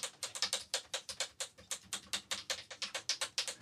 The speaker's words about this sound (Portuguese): Outro exemplo: cachorrinhos andando num piso de madeira.